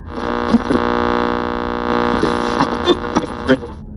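A steady, buzzing electrical hum of interference on a night-time FM radio broadcast drones on for the whole stretch, layered with harmonic tones and occasional brief crackles and clicks popping through.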